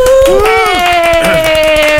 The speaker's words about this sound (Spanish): Así que un aplauso para mi invitada especial